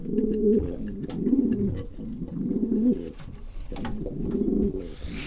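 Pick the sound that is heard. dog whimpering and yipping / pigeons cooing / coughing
pigeons cooing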